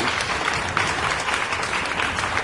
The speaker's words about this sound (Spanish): Aplausos para la humanidad miserable.